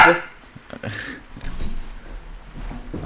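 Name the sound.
dog growling and whimpering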